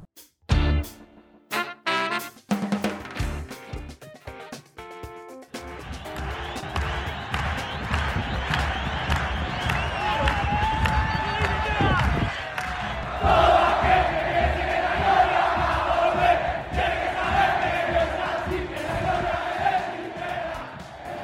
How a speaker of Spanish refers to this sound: el audio que escuchábamos recién, bueno, eran todos los jugadores, los pelotas, el cuerpo técnico y los 30.000 hinchas de instituto festejando lo que fue un triunfazo el de este lunes